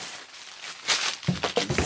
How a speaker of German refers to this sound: Warte, ich mache mal das Papier ab. So.